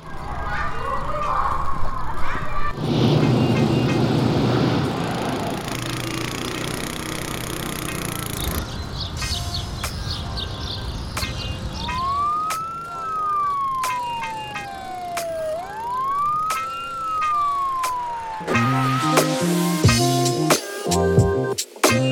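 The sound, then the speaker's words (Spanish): Busy street ambience in a medium-sized Spanish city: a rumbling engine passes early on, then a siren wails up and down twice, with steady traffic noise throughout and a burst of horn-like tones near the end. “Estamos en una ciudad media española. El ambiente sonoro nos sitúa rápidamente en un entorno familiar.”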